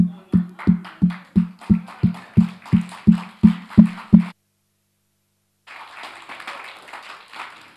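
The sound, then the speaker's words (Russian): A church audience claps to praise God, in steady unison, about a dozen sharp, even beats with a low thump. A short silence follows, then looser, softer scattered clapping. “За то, что у тебя есть руки, да, руками вот руки даны, чтобы хлопать Господу.”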